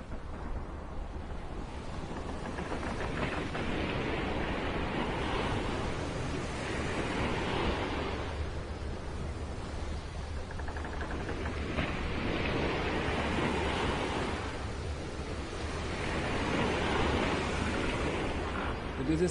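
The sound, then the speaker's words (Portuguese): A stormy sea roars continuously, with large, heavy waves surging and crashing in slow, repeating swells every few seconds, loud and buffeted by wind noise, jolting a ship. “Nos porões, alguns escravos já se encontravam caídos, feridos e gravemente ensanguentados por conta dos muitos solavancos provocados pelas grandes ondas.”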